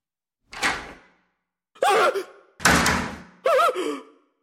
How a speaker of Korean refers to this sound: 어쩔 수 없이 좌병기를 사용하기 위해 칸막이 문을 연 순간